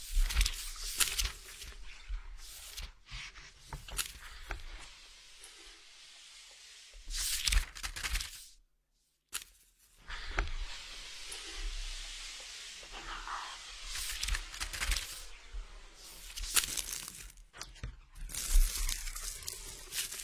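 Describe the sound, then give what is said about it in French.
Dense paper crumpling and crinkling with occasional tearing, made as a sound creation, coming in irregular crackly bursts that swell and fade, with a brief silent gap partway through. No voices. “Du coup, on va écouter un furtif de papier.”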